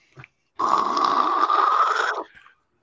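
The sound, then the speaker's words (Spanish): A voice imitates a woman hawking up phlegm and spitting on the ground: a brief throat click, then a loud, sustained raspy gargling snort lasting about a second and a half, ending abruptly with a faint trailing breath. “En el suelo, escupió en el suelo.”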